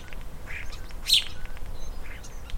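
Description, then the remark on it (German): Outdoor morning garden ambience with scattered bird chirps and calls, one brief sharp call standing out, over a steady low background hum; no one speaks. “Ich habe mal aufgenommen in meinem Garten, wie das klingt morgens.”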